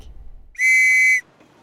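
A single loud train whistle sounds for about half a second, a steady, high-pitched tone with a bright, buzzy edge that cuts off abruptly, with faint background noise before and after.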